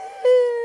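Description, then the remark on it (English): A dog lets out one brief, strained howl, a failed attempt at howling that never quite takes off: a thin, steady whining tone, loud, breaking off abruptly after under a second. “that was a dog trying to howl that failed.”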